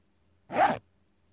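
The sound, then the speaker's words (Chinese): A clothing zipper is pulled open in one quick, raspy zip lasting about a third of a second. It sounds crisp and fairly loud against near silence, with no talking. “把拉链拉开吧”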